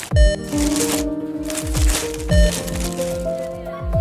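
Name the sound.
plastic bag crinkling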